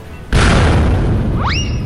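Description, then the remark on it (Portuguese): A sudden, loud explosive blast as a shell fired point-blank strikes a figure in the chest during a fight with a helicopter in the airspace over a stadium, then a dense roaring rumble that barely fades, with a pair of rising whistling tones near the end. “mas logo é atingido por um petardo disparado a queima-roupa em seu peito.”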